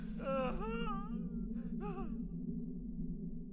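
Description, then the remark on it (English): A sharp, voiced gasp with a strained, whimpering edge, then a quick breathy intake of air, over a steady low background hum. “I gasped in distilled silence again, my muscles clamped rigid.”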